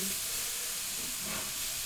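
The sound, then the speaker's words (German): Steady, hissing sizzle of golden-brown aubergines frying in a pan, a constant bright crackle that holds evenly throughout the short stretch with no voices. “So, ich habe jetzt die Auberginen goldbraun bekommen, zumindest ein bisschen.”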